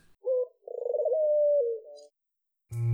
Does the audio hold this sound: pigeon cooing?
yes